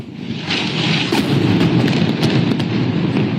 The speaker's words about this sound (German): Bomben explodieren mitten in Tel Aviv, mitten in Gaza-Stadt.